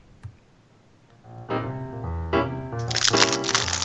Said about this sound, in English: And ladies and gentlemen, there's the rustling there. You know it's coming.